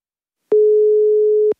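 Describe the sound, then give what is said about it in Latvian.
A single steady telephone ringing tone sounds for about a second, clear, with a soft click at its start and end, as a call goes unanswered. No voices. The call is to the mobile phone of Jānis Vaivods, head of the Riga city Outdoor Space and Mobility Department. “Ārtelpas un mobilitātes departamenta vadītāja Jāņa Vaivoda mobilais telefons šodien ir ieslēgts, taču zvaniem viņš neatbild.”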